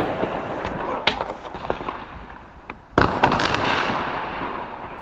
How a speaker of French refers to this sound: Mais c'est pas trop des pétards, c'est plutôt. Mais moi j'appelle ça des pétards, c'est plutôt des, minuscules explosions, mais c'est. Mais c'est. Ça fait beaucoup de bruit.